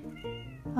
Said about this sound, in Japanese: なんか猫がすいません